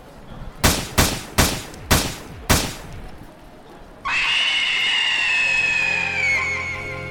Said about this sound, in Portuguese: Tirei a minha calibre 38 e atirei cinco vezes nas suas costas.